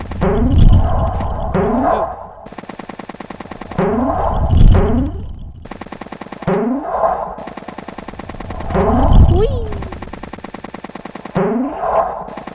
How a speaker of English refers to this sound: That's the first cannon. I forgot to mention that after you pass the cannons, they stop firing balls, so you won't have any chasing you other than the original from your left.